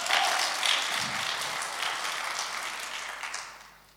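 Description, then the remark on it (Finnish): An audience at a Christian evening gathering breaks into steady applause for a woman who has just finished her talk. The dense wash of many hands clapping holds for a few seconds and then fades out toward the end. No one speaks over it. “Annetaan hänelle aplodit.”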